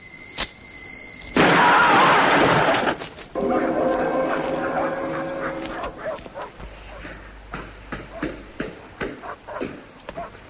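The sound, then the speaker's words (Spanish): A sudden loud, harsh burst of gunfire erupts in a Charles Bronson film scene with car thieves, followed by whining and yelping sounds and then agitated voices talking. “Hemos oído disparos. ¿Qué ha pasado?”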